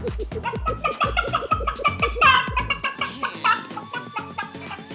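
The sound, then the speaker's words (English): A local drag queen imitates a chicken, making a rapid string of rhythmic clucks into the microphone, with a louder squawk-like burst midway before the clucking continues. “I can cluck like a chicken.”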